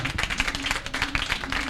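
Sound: audience applauding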